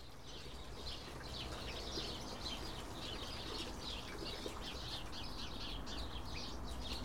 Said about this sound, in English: It has been raining like this for ages, so it seems. The house sparrows don't mind, but I do.